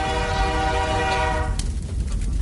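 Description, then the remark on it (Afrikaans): A train horn blares a sustained chord for over a second, then cuts off, leaving a heavy, steady rumble of a passing train. No one speaks. “Nee, nee, nee ken daai geluid. Dis Tini trein.”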